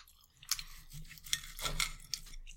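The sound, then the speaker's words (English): Someone chewing steak, with irregular wet, crackly bites and squelches rising every half second or so over a low steady hum. No one talks. “I was gonna say if you want to keep chewing while I'm chewing.”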